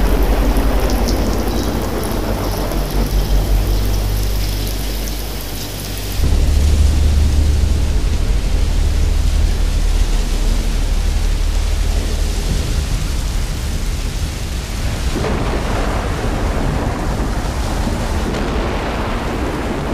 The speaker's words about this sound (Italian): Piove. Piove. Sì. Piove. Piove. Scende la piove. Scroscia.